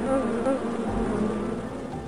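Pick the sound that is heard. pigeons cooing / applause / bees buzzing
bees buzzing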